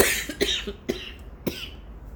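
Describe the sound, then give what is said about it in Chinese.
A run of coughs: several short, raspy bursts with three stronger hacks spaced about half a second apart, mixed with smaller throaty catches and no talking. “就连咳嗽都很神奇，就是里面怎么会有奇怪的痰呢？”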